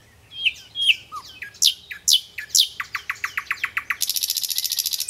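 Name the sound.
common nightingale song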